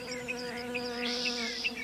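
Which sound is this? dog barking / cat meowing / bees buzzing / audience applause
bees buzzing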